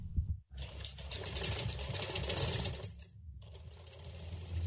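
A sewing machine runs in steady bursts, its rapid needle chatter and motor whir close and fairly loud, pausing briefly before starting up again; no one speaks.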